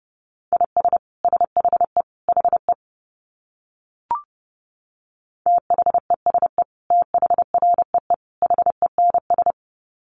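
Rapid Morse code beeps at 30 words per minute, at a steady mid pitch, short dits and longer dahs grouped into quick bursts with brief gaps, plus a single short chirp midway; no voices.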